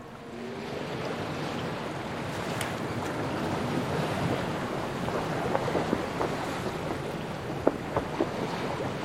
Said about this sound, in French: un léger vent d'ouest souffle en ce matin de janvier 1864. La mer est relativement calme, ce qui n'est pas si fréquent autour des Auckland, petit archipel inhabité perdu dans l'océan Pacifique au sud de la Nouvelle-Zélande.